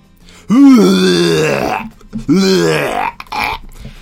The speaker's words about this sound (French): La pauvre petite fille, là, dans la toilette, en train de vomir comme une bonne.